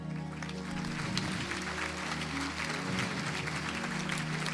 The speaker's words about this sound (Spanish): Vamos, bríndale una adoración de palmas al Rey.